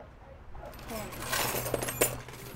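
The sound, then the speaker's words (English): A bright metallic jingle of secondhand keys being shuffled, with several clinking bursts building over a couple of seconds above a low steady hum. “What do people want secondhand keys for?”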